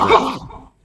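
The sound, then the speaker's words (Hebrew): A single short, harsh cough bursts out loudly, then trails off into a rough, throaty decay lasting under a second, with no talking over it. “לבריאות, זה לא היה בדיינמייט.”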